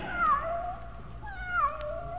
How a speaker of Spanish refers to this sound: Y cuando más tranquilos iban, se encontraron a un pobre gato junto a una piedra llorando de pena.